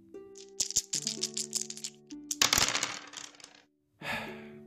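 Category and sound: sound effect, dice rolling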